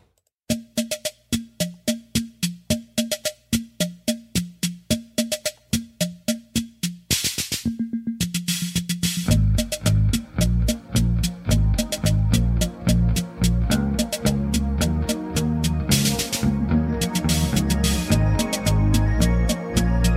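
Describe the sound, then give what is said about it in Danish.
Music by a Danish band with no talking: a sparse, steady pattern of short punchy notes for several seconds, then a loud full band with driving drums and heavy bass crashes in and keeps going. “den fik jeg egentlig, da jeg hørte det band, danske band, der hedder …”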